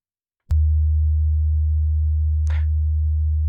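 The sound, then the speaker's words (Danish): A recording of a low-frequency hum that a group of people report hearing: a steady, deep low-frequency hum switches on abruptly after a brief silence and drones on continuously at constant loudness, with a short faint chirp-like blip partway through. “vi har beskæftiget os med, med fænomenet lavfrekvent støj og infralyd i, i mange år”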